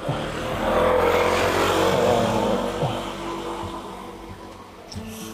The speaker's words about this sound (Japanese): 今ね、珍しくこの道をバイクが通り抜けていきましたね。